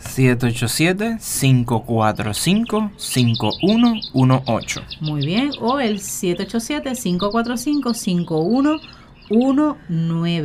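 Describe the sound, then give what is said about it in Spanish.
A cell phone ringtone of chirping birds, on a phone not set to vibrate, twitters faintly while a person keeps talking steadily over it, the bright tweets repeating throughout. “Por ahí escucharon los pajaritos, Esos son, ese es mi teléfono celular que no lo puse en vibrar.”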